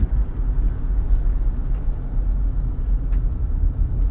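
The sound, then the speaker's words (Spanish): A heavy truck engine rumbles steadily, a deep continuous drone with no pauses and no voices over it. “Ah, mira qué diferencia, camión.”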